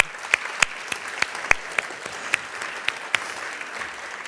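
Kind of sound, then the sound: crowd, theatre audience applauding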